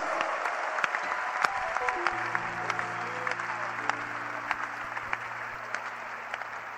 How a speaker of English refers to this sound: Oh, somebody put your hands together for Jesus.